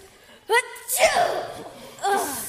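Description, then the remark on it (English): A single loud sneeze bursts out with a sharp breathy explosion, followed by a brief voiced exclamation, all within a couple of seconds. “disgusting. Bless you.”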